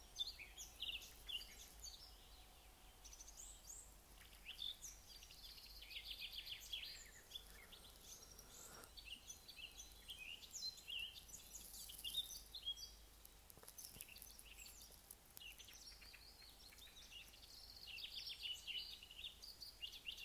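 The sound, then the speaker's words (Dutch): Several birds sing and chirp outdoors, a steady mix of high twittering calls scattered across the whole stretch, over a soft ambient hiss with no voices. “Die vogels zijn zo maar aan het fluiten.”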